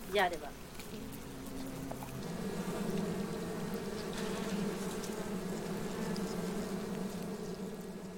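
A dense, steady drone of many honeybees buzzing around an open hive as a beekeeper works the hives bare-handed, a continuous swarm-like hum that swells slightly after the first couple of seconds and carries on without a break.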